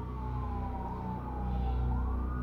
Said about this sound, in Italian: in lontananza si sentono le sirene della polizia